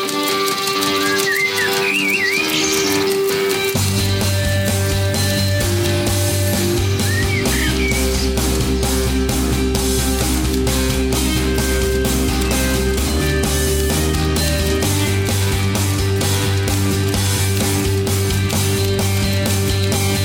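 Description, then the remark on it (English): An alt rock song plays loudly and steadily with a thick, shifting bass line and dense layered instruments, a whistle-like melodic line flickering over the top early on. No one speaks. “It has an alt rock vibe to it, but I think is more.”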